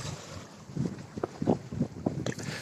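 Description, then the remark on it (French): Wind rushes over the microphone while a sailboat's hull knocks and creaks in a series of irregular low thuds as an orca pushes, plays with and shakes the boat, which it did for more than 30 minutes. “L'orque a passé plus de 30 minutes à jouer et secouer ce voilier.”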